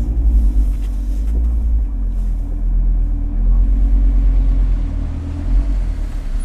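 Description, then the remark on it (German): A car drives along steadily with a low, constant engine rumble and road drone, heard as if from inside the vehicle, with no voices. “So, da sind wir. Jetzt nur noch den Wagen parken und dann der Kompassnadel nach.”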